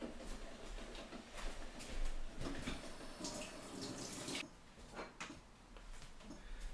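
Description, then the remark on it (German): Steady running tap water splashes, with irregular bursts and rubbing sounds as hands are washed under the stream after handling chili while cooking, continuing throughout without any speech. “Ich muss mich mal eben hier nach der Chili jetzt Hände waschen.”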